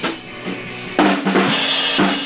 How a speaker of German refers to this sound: Man hört die lärmende Band ja, nebenan.